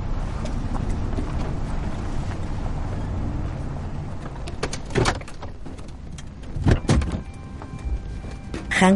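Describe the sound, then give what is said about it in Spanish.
A pickup truck door is opened for a boy after the truck stops in the middle of a desert landscape, over a steady low engine rumble, marked by a few sharp mechanical clicks and clunks spaced a second or two apart. “Para en medio del paisaje desértico y le abre la puerta al chico.”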